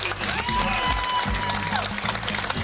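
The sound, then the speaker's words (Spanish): An audience breaks into sustained applause, a steady wash of clapping hands filling the whole moment, with faint crowd voices mixed underneath. The applause is for a 105-year-old woman receiving a government solidarity pension. “Un aplauso para”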